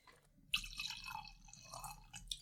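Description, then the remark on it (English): The last of a bottle of wine pours into a glass in one steady, splashy stream lasting about two seconds, starting abruptly after a brief quiet moment, with a bright liquid gurgle and no talking. “Give me your glass. A little splash for everyone.”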